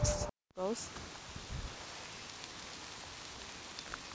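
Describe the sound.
Steady rain falls, a dense, even hiss of drops that fills the whole stretch, with a brief voice near the start.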